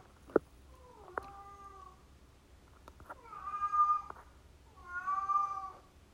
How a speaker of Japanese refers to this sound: すんごい黒が鳴いてますねこれが猫の夜泣きです